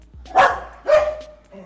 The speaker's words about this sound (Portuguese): Um, né, mais uma ação do Pura Neurose com onde os cachorros estão loucos. O sol fritou o cérebro deles.